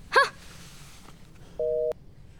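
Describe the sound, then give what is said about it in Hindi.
A phone call disconnect tone sounds once, a short steady electronic beep near the end, preceded by a brief tonal burst and faint background hiss. “phone cut करने के बाद आशना अलीशा के रूम में जाती है”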